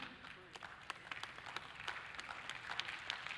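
Scattered, faint audience clapping: a light patter of uneven hand claps that never builds into full applause, with a soft murmur of sound underneath.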